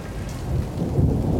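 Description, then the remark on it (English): A deep, rolling rumble of thunder swells beneath a steady hiss of falling rain, continuous and fairly loud throughout, with no voices present. “And then I feel like we should have, like, you know, maybe like lightning or thunder sound effects.”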